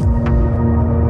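Electronic music plays steadily, a dense, loud wash of deep droning bass tones with a brief airy hiss rising through it partway in, and no voices.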